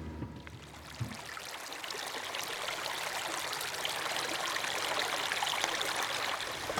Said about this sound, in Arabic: شو هاي المي على الطريق؟ هذه مية المجرور طلع على الطريق وبتصب بمية المشروع اللي هو بيسمو منه الزرع بتكمل لتحت مشروع الري